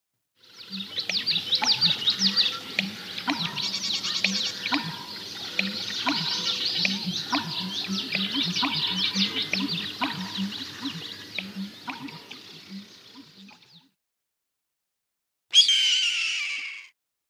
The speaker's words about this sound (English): You're just lucky to have seen an American bittern. These birds are masters of camouflage, so it will take a lot of patience to find them. Here is their call.